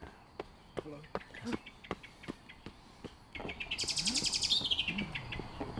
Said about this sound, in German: Was man da hört, ist eine Amsel, die vor einem Bodenfeind warnt, weil ein Läufer vorbeigekommen ist und der Specht hat jetzt aufgehört.